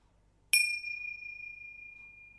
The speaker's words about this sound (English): I'm going to start a meditation with a single bell and I'll end it with a double bell.